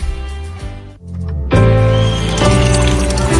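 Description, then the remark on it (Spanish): Drinking water pours steadily from a tap in a home in the Dominican Republic, a full continuous splash that briefly dips and then surges louder, with music playing underneath. “Que ahora el agua potable llegue a casa de Miriam y de dos millones de hogares más, lo logramos juntos Gobierno de la República Dominicana.”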